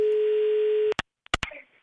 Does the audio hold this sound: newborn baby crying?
no